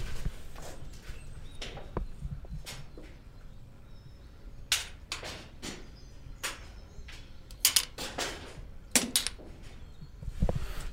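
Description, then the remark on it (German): Sharp metallic knocks from steel hammer machines striking walls throughout a building, each at its own speed, strike at an uneven pace from different directions. Some are loud from two hammers right beside the listener, others softer, overlapping with a low steady rumble in the background. “Ähm, genau, man hört diese Stahlhammermaschinen.”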